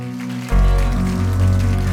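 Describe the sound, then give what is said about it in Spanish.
After a brief, quieter half-second, a church audience bursts into loud, sustained applause for the Lord's presence: a dense, rain-like crackle of many hands clapping that carries on to the end over a steady musical drone. “Dale un fuerte aplauso, Señor, por su presencia.”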